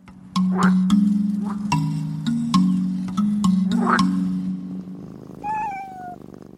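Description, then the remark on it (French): A Pallas's cat (manul), in the Himalaya, purrs in a steady, low rumble with soft rhythmic pulses while being scratched, then the purr fades into a brief, high, falling meow-like call near the end. “Allez, mon gros minou, mon Manul chéri, une dernière gratouille et je te laisse tranquille sur le toit du monde.”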